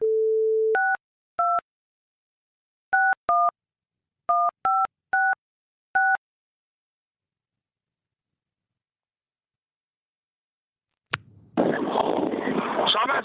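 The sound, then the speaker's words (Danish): A short dial tone gives way to nine touch-tone keypad beeps, dialed in quick uneven bursts. After a long silence, a sharp click is followed by a rush of static. “Kan ikke besvare dit opkald lige nu.”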